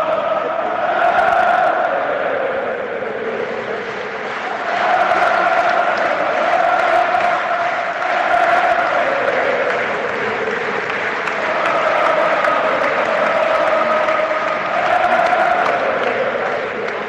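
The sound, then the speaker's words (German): A large football stadium crowd at the first home match of the season cheers and chants continuously, a dense roar of many voices with rising and falling swells of singing, loud and sustained throughout. “Ja, was ihr da hört, das ist nicht von vor der Pandemie, sondern ähm, das erste Heimspiel dieser Saison.”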